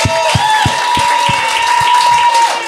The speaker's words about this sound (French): Puis je vais applaudir.